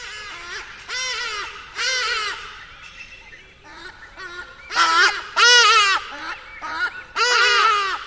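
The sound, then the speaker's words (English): Geese honk repeatedly while flying over a dry riverbed in the bush, in loud, overlapping bursts, several nasal calls coming in quick clusters with short pauses between them, and no voices alongside. “But the acoustics of the place were just amazing, and you'd hear geese or uh, ibises flying by.”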